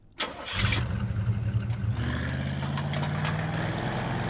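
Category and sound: vehicle, car engine starting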